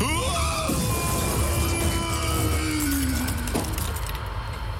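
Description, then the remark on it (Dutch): A loud car crash fills the whole stretch: a dense roar with sharp impacts, a drawn-out screeching tone, and glass breaking and clattering throughout, continuous. “Auto-ongelukje gisteren, niks aan de hand.”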